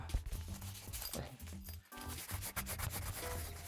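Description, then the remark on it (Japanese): Continuous rubbing and scraping as the leather case of an AT2035 microphone, which has a sturdy zipper and cushioning, is handled, with soft creaks and brief clicks over a few seconds and a short pause midway. “触った音だけのね、あれですけども、レザーのね、ちょっとね、えー、ちゃんとしたチェックあのチェックがついてて、結構頑丈なね、チェックがついてるんですよ、このね、チェックの音だけ。”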